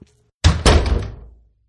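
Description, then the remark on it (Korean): A door swings shut with a solid double thump, the second impact right after the first, followed by a short fading rumble. Fairly loud, with no voices. “네, 마치면서 아, 이번 코너도 여기까지 하고 문을 닫겠습니다.”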